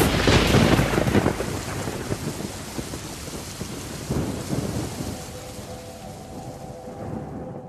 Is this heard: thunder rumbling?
yes